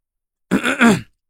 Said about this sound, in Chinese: 女孩走到我身边站好，傅成清了清嗓子。